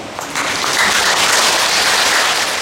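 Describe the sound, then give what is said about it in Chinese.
An audience claps together in a dense, steady burst of applause that starts almost at once and stays loud throughout, a crackling wash of many hands with no voices heard. “满于千岁常演说法，哇！拍拍手。”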